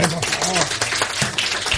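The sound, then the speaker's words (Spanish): Steady applause fills the short clip, a dense crackle of many hands clapping at once, with voices calling and cheering over it the whole time. “Un aplauso, por favor.”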